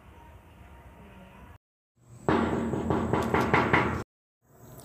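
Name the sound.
knocking on a door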